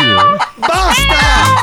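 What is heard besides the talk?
hen clucking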